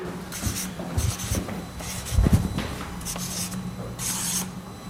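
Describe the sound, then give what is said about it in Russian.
Pen or marker scratching across paper envelopes in short, repeated strokes as numbers are written on them, with soft rubbing and an occasional light tap, fairly quiet, no voices. “Так. Перемешали. Нумеруй. Раз, два, три, четыре, пять, шесть.”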